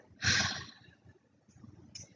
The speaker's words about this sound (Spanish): Entonces, inhalamos y exhalamos. Lo hacemos por nuestra nariz. Las dos, inhalar y exhalar. 11. Exhalo grande.